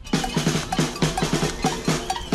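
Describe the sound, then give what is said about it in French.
Rapid, rhythmic metallic clanging of saucepans banged together in a French 'concert de casseroles' protest against President Emmanuel Macron's televised address, loud and repeated in a steady chanting pattern with bright ringing overtones, no voices. “Alors faisiez-vous partie des 15 millions de Français devant votre télé hier pour regarder Emmanuel Macron Ou peut-être étiez-vous dans l'un de ces 300 concerts de casseroles”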